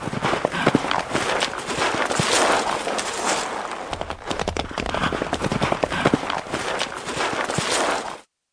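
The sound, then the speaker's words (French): Horse hooves clip-clop steadily as a horse-drawn carriage rolls along, a brisk continuous rhythm of sharp knocks over a rumbling, rattling background, fairly loud throughout. “Le lendemain, à peine était-elle coiffée et habillée que le carrosse du roi vint la prendre.”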